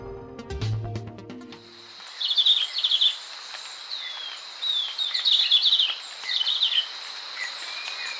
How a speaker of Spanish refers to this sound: El verderón castaño que oímos trinar no llega a medir más de 12 centímetros tiene la cabeza rojiza y el cuerpo y las alas de color oliva claro. Se puede observar en la serranía de Perijá, en los límites entre Colombia y Venezuela.